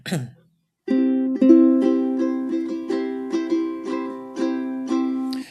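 A ukulele is strummed repeatedly at a steady rhythm by a player about two weeks into learning, bright sustained chords ringing out loud, after a brief vocal noise at the start.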